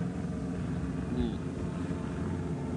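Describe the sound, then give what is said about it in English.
A helicopter passes overhead, its low, steady engine rumble filling the background, droning evenly without fading in or out. “There's a helicopter flying by”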